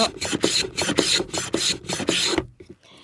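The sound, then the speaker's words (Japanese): A dried bonito (katsuobushi) block scraped back and forth over a plane blade, about six steady rasping strokes in a regular rhythm, fairly loud, with a brief quiet pause at the end; the blade sticks out slightly, so the shavings come off as powder. “で今削ってちょっと粉になるのちょっと歯が出てますね。”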